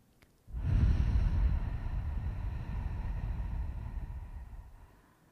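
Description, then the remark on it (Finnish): A deep, slow breath drawn in and let out during a guided breathing exercise, a long airy rush that swells quickly and then fades gradually, with no talking. “Ja sitten ota syvempi hengitys sisään.”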